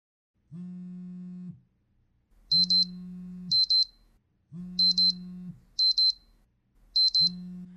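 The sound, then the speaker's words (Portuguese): An alarm clock rings in a steady repeating cycle, low buzzing tones alternating with quick pairs of high-pitched beeps, fairly loud with no voices. “Você acorda com seu despertador tocando, olha no celular que você possui.”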